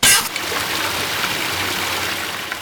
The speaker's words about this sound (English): and a water main breaks near the main gate as everyone is trickling in for duty. The initial burst of water causes a minor accident on the scene that is complicated by hundreds of gallons of water spilling onto the street.